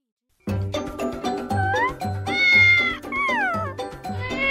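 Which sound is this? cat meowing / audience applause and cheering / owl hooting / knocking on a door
cat meowing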